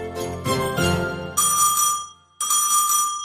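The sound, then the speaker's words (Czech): An electronic doorbell, rung twice by a postman after dinner, chimes: a quick run of bright tones, then two loud, steady high-pitched rings with a short gap between them. No voices. “Když jsem si po večeři všechny ty dárky rozbalila, zazvonil zvonek.”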